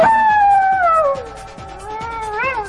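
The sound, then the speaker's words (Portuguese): Someone imitates a coyote, letting out one long, loud, wavering howl that slides downward and then rises again near the end, with no talking. “Fico agressiva como um é, um coiote.”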